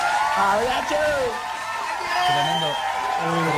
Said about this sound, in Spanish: Eh, los aplausos son para vos.